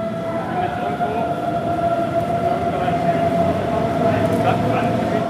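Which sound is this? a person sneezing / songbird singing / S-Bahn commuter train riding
S-Bahn commuter train riding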